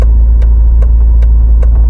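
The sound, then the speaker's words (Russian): A car drives with a steady low engine rumble, while a sharp, regular slapping thump repeats about every half second from a punctured tire flapping against the road; the steering wheel vibrates and the car pulls toward the side of the punctured wheel. “Но тут начинает предательски вибрировать руль в руках, и машину перекашивают на сторону пробитого колеса.”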